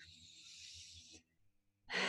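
A long, slow, airy deep inhale lasting over a second, taken as a conscious breathing exercise, a brief held pause, then the start of a loud, forceful exhale, with no talking.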